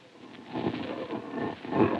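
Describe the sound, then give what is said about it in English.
A low, rumbling hum from inside a metal object, heard from not more than 25 feet away, drones steadily for the whole stretch, fairly loud, swelling slightly toward the end with no voices over it. “It's a curious humming sound that seems to come from inside the object.”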